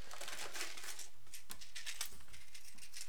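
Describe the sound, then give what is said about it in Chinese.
A pill box holding escitalopram oxalate tablets and lorazepam from Dongting Pharmaceutical of Hunan being handled: a steady run of light rattling, clicking and crinkly plastic sounds with a few sharper taps, continuing for about three seconds with no one speaking. “啊，这样听到的话就这个药盒子，然后一对，这是草酸艾司西呋普兰片，然后另外一个是劳拉西泮，是那个湖南的一个叫做什么洞庭药业，反正就是。”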